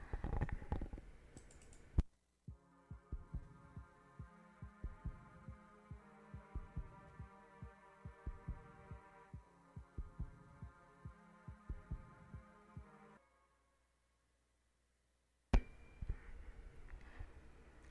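A pop song opens with a steady, throbbing heartbeat-like pulse under sustained synth tones, the low thumps repeating in an even rhythm before the music cuts out briefly near the end.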